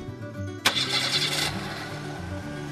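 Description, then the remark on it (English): A father starts up the family car: the engine cranks and catches with a sharp burst of starter noise, then settles into a steady idle rumble with a low droning hum. “Her dad asked as he started up the engine.”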